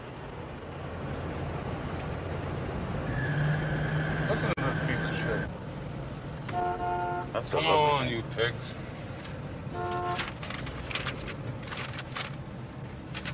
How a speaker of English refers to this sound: I can't get over here. 150 fucking cars. Some asshole in a class truck.